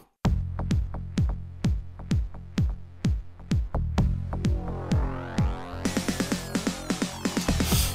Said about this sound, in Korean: 자 지금 나오는 곡은 베어너클 1의 Fighting in the Street 라운드 1이라는 곡입니다.